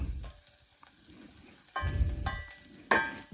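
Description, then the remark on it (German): Onions browning in a pan, a steady crackling sizzle with a couple of louder bursts of spitting and a faint clatter, as if stirred. No one speaks. “kann ich ja jetzt hier, während die Zwiebel noch so ein bisschen, so ein bisschen Tong bekommt,”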